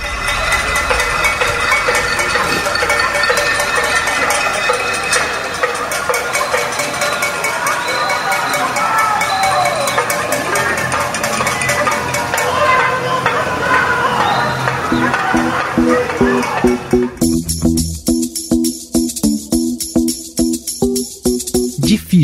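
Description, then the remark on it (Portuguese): A dense, continuous clatter of many metal pots being banged at once by people at their windows across Brazil in protest against the federal government, with faint shouting mixed in, shifting near the end into a sharper, more rhythmic clanging. “brasileiros de todo o território foram às janelas bater panela em protesto ao governo Bolsonaro”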